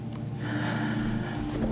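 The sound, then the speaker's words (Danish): A voice imitates a loud, rattling, snorting gasp, a single drawn-out strained breath with a harsh throaty buzz, without any speech. “Så, øh, så i det samme, altså da jeg hørte den grimme, ralle, snorkely, meget højlydt.”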